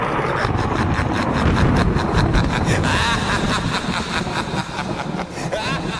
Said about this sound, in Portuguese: E foi só eu falar em castigo e derrota que o editor já soltou um trovão e uma risadinha.